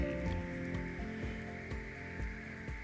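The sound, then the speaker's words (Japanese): Frogs croaking at Nonoyu hot spring in Kirishima, Japan, in a steady rhythm, roughly twice a second, over a constant bed of background noise, with the calls standing out clearly and no one talking. “今日はカエルの鳴き声の響き渡る霧島は野々湯温泉からお届けしました”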